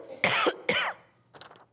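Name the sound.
coughing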